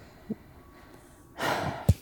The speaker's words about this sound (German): Ich habe nur abgeschnauft. Ah, okay. Ich schnauf manchmal ab.